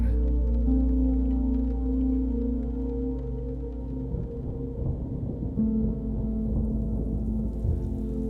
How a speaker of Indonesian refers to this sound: Semakin deras hujan, semakin dalam dan berat juga pernafasanmu.